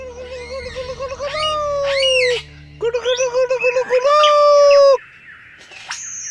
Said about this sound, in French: un magnifique oiseau lyre, aussi appelé Ménure superbe. Il possède la faculté d'imiter le chant des autres oiseaux ou divers sons entendus. Y compris la voix humaine ou le bruit d'une tronçonneuse.